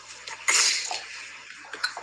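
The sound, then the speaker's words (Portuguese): A wet sniffle caused by allergic rhinitis: one sharp nasal inhale, followed by a couple of softer, shorter snuffles near the end. No one speaks. “Esse, esse fungado foi apenas, apenas alergia, O rinite, não se preocupe.”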